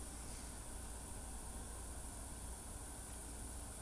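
A steady, low-level background hiss runs unbroken for the whole stretch, even and featureless, with a faint rumbling undertone and no voices or other sounds.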